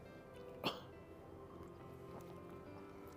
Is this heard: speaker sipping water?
yes